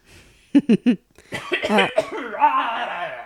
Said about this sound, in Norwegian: Og jeg hoster fremdeles. Det er litt uh, kjedelig. Sikkert ganske kjedelig å høre på, jeg.